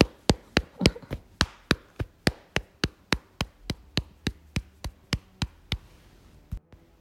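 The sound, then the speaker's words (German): The three middle fingertips tap lightly on an upper arm from a loose wrist in a steady, even rhythm, around twenty soft taps, then a short pause before two final taps. No one speaks. “Klopfe mit deinen drei mittleren Fingern leicht den Oberarm ab.”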